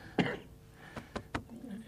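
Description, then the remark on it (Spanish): A person with a slight cough coughs: one heavy, rough cough followed by a few short, sharp coughs spaced about a quarter second apart, with faint murmuring in the background. “tiene un poco de tos, pero está presente aquí.”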